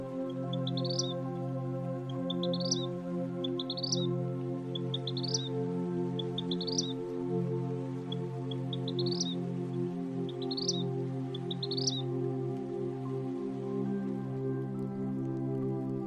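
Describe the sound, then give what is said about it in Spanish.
Vermilion flycatcher, a bird about 14 cm long with an intense red back and tail and black wings, sings: a series of about eight short, bright rising notes repeated at a steady pace, fairly faint over a constant low humming drone, then stopping partway through. “Es un ave fotogénica, de apenas 14 centímetros de longitud, y un canto discreto, por lo que para escucharlo bien es necesario prestar atención a las repetitivas notas que deja salir.”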